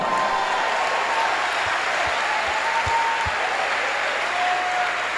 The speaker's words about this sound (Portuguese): E agora dê um aplauso ao Senhor.